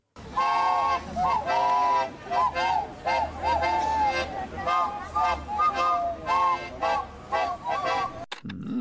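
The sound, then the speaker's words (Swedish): An ensemble of clay whistles (lergök), the clay whistle orchestra of Ängelholm, plays together, a dense, warbling chorus of bright, fluttering tones with shifting pitches, continuous and loud throughout before cutting off abruptly near the end. “De har till och med en lergöksorkester.”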